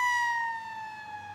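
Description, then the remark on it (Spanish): A loud fire truck and emergency vehicle siren sounds alone as the first units arrive at the Place de l'Alma tunnel after a crash, holding a strong steady tone that sags slightly downward over a brief stretch. “El primer carro de bomberos y las primeras unidades de emergencias llegaron al túnel para atender a los heridos.”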